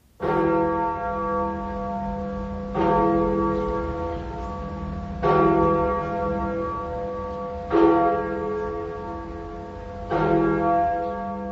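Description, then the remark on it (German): The Freedom Bell in Berlin, the city's largest bell in secular use, tolls five slow, evenly spaced strikes, each blooming into a deep, rich hum that lingers into the next. It rings loud and resonant, with no voices. “Immer sonntags, 11.59 Uhr, ist die Glocke zusammen mit dem Freiheitsgelöbnis im Deutschlandfunk Kultur zu hören.”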